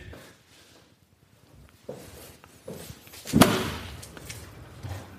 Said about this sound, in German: Ja, jetzt klopft. Drücken, Tür ist auf eigentlich.